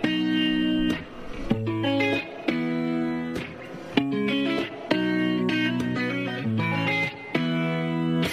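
A pop song intro played on the radio station Dynamique: bright, layered synth chords repeat in a steady pattern with brief dips between phrases, loud and up front, with no singing yet.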